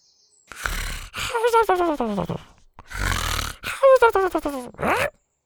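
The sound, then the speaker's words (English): Two rounds of a human voice imitating a small, pudgy Triceratops snoring under the back seat: a raspy, breathy snore followed by a string of squeaky, falling grunts, fairly loud, with a short pause between rounds. “she'd forgotten all about Scoot, who was still snoring happily under the back seat”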